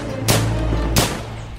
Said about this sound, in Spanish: VR. Victoria Regina. Escribía las insignes siglas de nuestra reina en la pared. ¡A balazos!